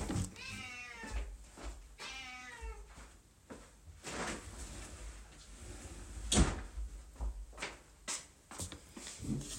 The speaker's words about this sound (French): Alors, je suis désolée, vous entendez mon chat miauler. Évidemment, je me suis mise dans le bureau et elle veut sortir.